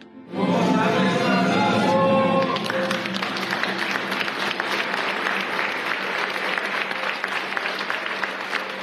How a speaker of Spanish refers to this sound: Primero fue enterrado el padre Javier, a quien le lanzaron flores. Gritaron, ¡Viva el padre Gallo! y aplaudieron.